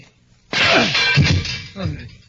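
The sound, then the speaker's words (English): A steel cell door is smashed open in one sudden, loud crash that rings and clatters for about a second, followed by a smaller second bang. “But steel can be smashed if it has to be.”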